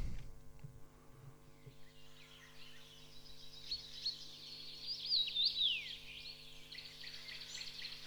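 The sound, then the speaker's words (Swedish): A common rosefinch sings a short run of clear, whistled notes, rising and falling, over a steady low hum and a faint insect-like buzz in the background. “Det är en östlig, väldigt, väldigt vacker fågel, de utfärgade hannarna i alla fall eh, som heter Rosenfink. Vi ska lyssna på hur den låter.”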